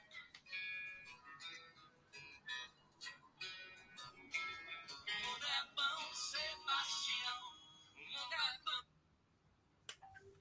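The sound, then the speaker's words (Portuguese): A telephone rings with a bright electronic ringtone, rapid tonal bursts repeating for several seconds, then stopping abruptly near the end. “Ih, olha o telefone.”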